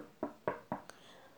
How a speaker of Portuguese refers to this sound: Então ela bateu na porta de Dona Formiga.